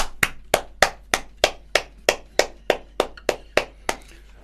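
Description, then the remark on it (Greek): Steady single hand claps, about thirteen evenly spaced sharp slaps over four seconds, fairly loud with no other sounds around them. “Ούτε ένα χειροκρότημα, μία έτσι να κάνεις.”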